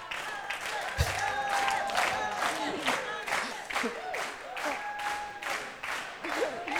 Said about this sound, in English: Oh, there's a slow hand clap.